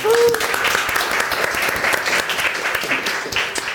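Steady applause from an audience for a colleague who is present, a dense crackle of many hands clapping at an even loudness for a few seconds, with a brief tonal whistle-like note at the very start.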